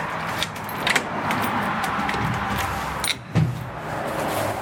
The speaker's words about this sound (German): Die Tür klemmt, als Heinz Morawczyk sie aufschließt.